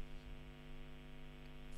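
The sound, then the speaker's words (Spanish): A steady electrical buzz of line interference on a call hums alone for under two seconds as the audio cuts out, even and unbroken with a faint hiss on top, and no voices come through. “¿Sí, que, sí, pero es que hubo una interferencia y como que se, se cortó un ah, poquito.”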